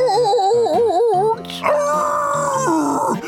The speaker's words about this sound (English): The two robbers threw themselves against the glass window really hard. Clang! They covered their heads and howled in pain. Ow! Ouch! It hurts so bad! Ouch!